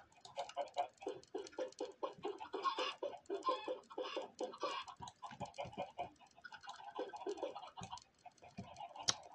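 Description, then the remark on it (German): Many chickens in an egg-laying enclosure cluck loudly and continuously, a dense, overlapping chorus of short repeated calls, with no talking. “Das ist sehr laut. Ich weiß, ich müsste mal ein anderes Gehege bauen.”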